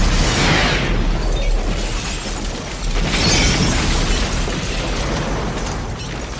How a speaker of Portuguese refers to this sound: Uma explosão no início da manhã que atingiu três casas conjugadas. Pelo menos duas pessoas morreram